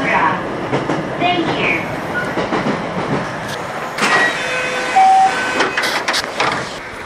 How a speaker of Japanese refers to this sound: 4年前は坂駅までしか行けなかった JR 呉線に乗って、小屋浦に向かいました。